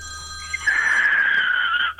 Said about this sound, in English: Well, we're trying a new phone line, and um, apparently it rings quite loud.